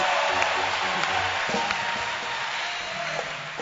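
An audience claps for Jesus together in a dense, steady wash of applause that stays loud and continuous, easing slightly toward the end, with a few sharper claps standing out.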